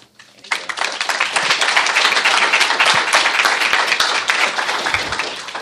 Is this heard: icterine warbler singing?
no